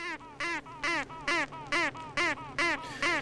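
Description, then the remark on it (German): Unhatched honeybee queens, ready to hatch, quacking from inside their cells, recorded with a special microphone: a rapid series of about eight short, buzzy pulses in a steady rhythm, fairly loud, with no talking. “Ja, es klingt so ein bisschen wie so ein Quaken.”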